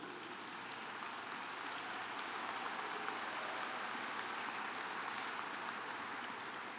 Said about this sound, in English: I was going to suggest that you withhold your applause until the end, but I know he's sort of irresistible, so we'll make an excuse for him.